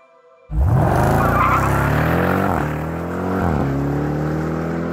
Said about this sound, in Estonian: Grand Cherokee möiratas nagu vihane äike.